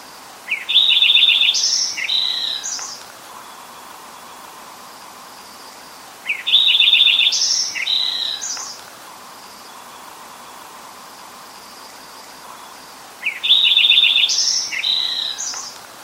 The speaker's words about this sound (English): So that is the Lincoln Sparrow, and uh, keep an eye out for those, and ear out for those, I guess I should say.